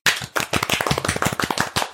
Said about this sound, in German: Ja! Einmal Applaus für Transe.